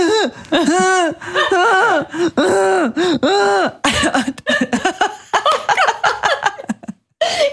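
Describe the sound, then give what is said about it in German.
A voice imitates the strangled, stifled scream made when trying to scream during a nightmare: a run of short, strained, rising-and-falling cries followed by rasping, choked bursts, loud with no other sounds around it. “Und immer wenn ich schreie, schreie ich natürlich nicht im Sinne von ah!", sondern es kommt dann ein Geräusch raus, ne?”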